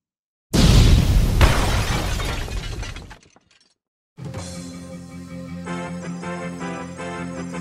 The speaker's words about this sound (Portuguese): Fósforo e titânio se aproximam quando estão quase se beijando. Fósforo desvia o rosto e acontece uma grande explosão causada por fósforo.